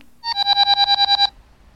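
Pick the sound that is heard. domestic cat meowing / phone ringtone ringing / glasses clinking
phone ringtone ringing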